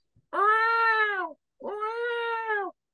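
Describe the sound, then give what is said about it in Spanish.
Two long, drawn-out meows voiced by a person imitating a cat, each about a second with a short pause between, loud with a whiny, sustained tone. “el gato me despertó que si a las 7 de la mañana porque estaba mayando afuera de mi puerta”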